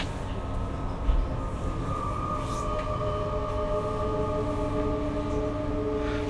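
A train rumbles along at a steady level, with a deep low roar under sustained, whining tones from the wheels and rails. The sound holds constant throughout, with no voices.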